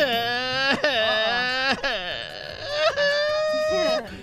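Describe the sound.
A man's voice imitates the joke character Pepito, a child crying in the street, with drawn-out, wavering wails broken by sharp sobbing gasps, loud for about four seconds.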